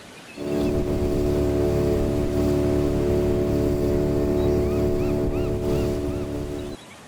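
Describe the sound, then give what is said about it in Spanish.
An approaching motorboat's horn blares in one long, steady, deep blast lasting about six seconds, loud, over a low rumbling engine, then cuts off abruptly. No one speaks. “¿Qué es eso, Robinson? ¡Una lancha! ¡Una lancha!”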